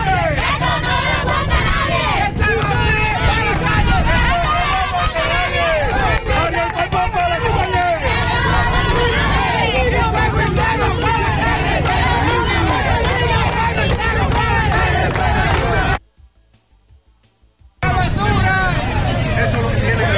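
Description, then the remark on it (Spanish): A loud, dense crowd of residents of Cortón shouting and chanting together outdoors at a street protest over drinking water, continuous, with a brief dropout of near-silence near the end before the clamor resumes. “Ese video nos enviaba Máximo Peralta por agua potable, estaban protestando ahí los moradores de Cortón”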